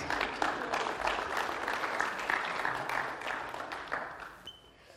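A round of applause from a group, many hands clapping in a dense, steady patter that holds strong for about four seconds before tapering off at the end.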